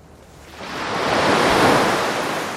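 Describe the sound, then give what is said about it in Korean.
Ocean waves surge in as a broad, hissing wash that swells and peaks midway, then recedes slightly, steady with no voices. “아, 파도 소리입니다.”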